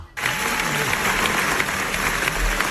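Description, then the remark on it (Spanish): At the Venice Film Festival, a large audience gives Brendan Fraser a sustained ovation for the film The Whale, dense steady clapping mixed with cheers, starting abruptly after a brief silence and staying loud throughout. “Ha reaparecido en una película que es The Whale y se llevó esta ovación.”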